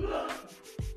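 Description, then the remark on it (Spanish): A single quick, breathy sneeze bursts out after a sharp intake of air, at home during a video recording, with a low hum in the background and no talking. “¡Salud!”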